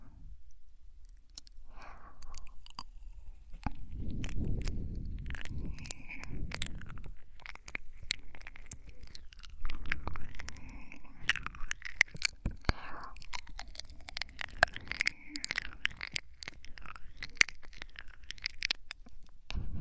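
Girlfriend-roleplay ear-licking ASMR mouth sounds: a steady stream of wet, sticky clicks and smacks in an irregular rhythm, with soft breathy rustles underneath and no speech.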